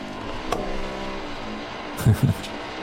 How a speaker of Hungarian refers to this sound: Na, most megint elkezdenek fúrni pillanat Semmi gond.